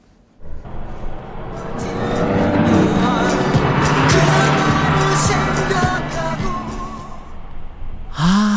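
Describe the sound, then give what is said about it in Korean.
Cars rush past on a road, heard while driving along it, a loud swelling roar of traffic that builds after a second, peaks midway and lingers, with a faint muffled strain of music from a passing car buried beneath the engine noise. “지금 우리는 함께 도로를 달리고 있어요. 옆에 차들이 막 지나가고 있습니다.”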